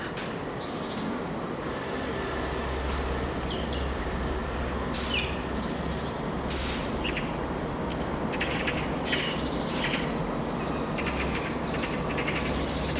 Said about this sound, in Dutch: geluid van kraaien.